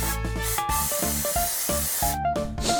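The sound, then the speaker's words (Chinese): Rapid, frantic bursts of a 熊宝贝 (Snuggle) aerosol fabric freshener, grabbed from a table and sprayed at a cockroach, a string of loud hissing sprays with short gaps between them, over steady background music with no talking. “乱了阵脚的我，随手拿了桌上的东西，朝着他狂喷。”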